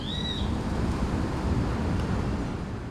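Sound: birds singing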